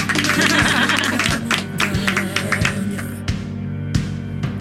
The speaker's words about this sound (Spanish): Aplauso